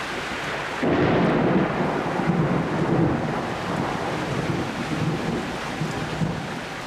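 A heavy summer thunderstorm rumbles continuously with deep, rolling thunder over steady heavy rain, starting abruptly after a brief quiet moment and staying loud throughout, with some wind buffeting.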